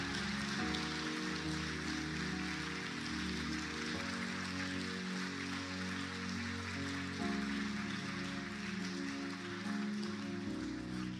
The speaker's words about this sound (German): die heute hier mitgearbeitet haben, um diesen Gottesdienst möglich zu machen, lass uns denen im Welcome-Bereich, wo auch immer, und auch denen, die jetzt gerade kind, Kinderkirche leiten, lass uns ihnen einfach mal einen Applaus geben.